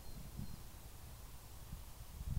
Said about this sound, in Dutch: ik hoor hem wel, die, die A28. Het is van beide wat, hè? En vogels en de snelweg. Hij loopt hier echt vlak langs. We zijn op landgoed De Treek. Nou, ik denk 200, 300 meter verder loopt de A28. 24 uur per dag verkeer.